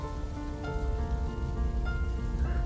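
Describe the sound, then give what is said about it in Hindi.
Steady, dense rain falls continuously, a broad hissing wash with faint drips and patters layered over a low rumble, fairly loud, with no voices; the aggressive, heavy first rain in Mumbai after the summer. “मुंबई को 12 महीनों की बारिश का वरदान मिला है पर कड़कती ठंड नहीं मिलती यहां पहली बारिश आक्रामक और जोरों शोरों के साथ होती है महीनों बाद खिड़की के अस्तित्व का एहसास करना पड़े ऐसी गर्मियों पर बारिश टूट पड़ती है”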